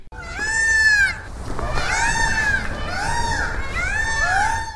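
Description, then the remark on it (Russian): Peacocks crying in castle gardens on the steep bank of the Elbe (Laba), calling out at strangers: loud, nasal wailing calls with rising and falling pitch, several overlapping and repeating throughout with no pause, and no talking. “они встречают криками любого постороннего.”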